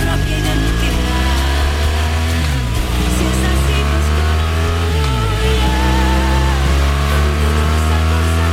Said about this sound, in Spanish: pero lo hacemos, como ves, con el sonido de fondo del circuito de Jerez que está a punto de comenzar ya las carreras